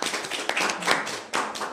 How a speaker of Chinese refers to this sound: 啊，掌声送给他们，谢谢。